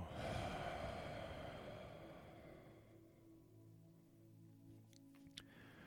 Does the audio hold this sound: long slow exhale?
yes